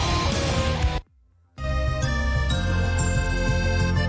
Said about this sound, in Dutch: …, maar dan in de liftmuziekuitvoering.